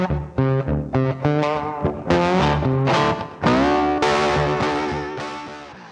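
Loud rock music with distorted electric guitar plays continuously, bright sustained chords and riffs driving along with a steady full-band sound and no voices, played at high volume while a father bathes.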